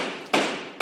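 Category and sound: impact, gavel striking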